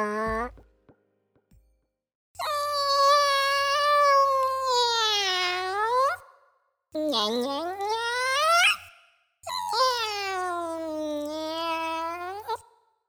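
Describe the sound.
A voice imitating a cat named Tama gives three long, drawn-out meows, each wavering in pitch and rising and falling, with short pauses between them and a low hum underneath.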